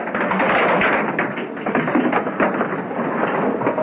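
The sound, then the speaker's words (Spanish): Chairs knocked over by Liberty as he walks out, a loud, irregular run of wooden clatters, knocks and thuds one after another over a dense, rumbling wash of noise, with no voices. “Se va tirando las sillas que encuentra a su paso.”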